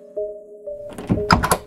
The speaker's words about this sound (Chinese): 但是突然之间，那个门就打开了